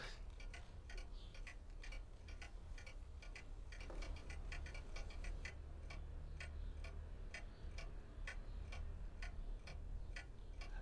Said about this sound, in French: les petits tic-tic qui, qui, forcément du coup est mon fil conducteur un petit peu du morceau. Donc il y a tout ce mécanisme d'horloge en fait qui va rythmer, qui va structurer un petit peu le morceau comme ça.